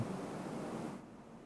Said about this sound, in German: Das Rauschen ist eine Klimaanlage im Hintergrund.